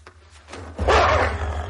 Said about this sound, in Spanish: Los lobos.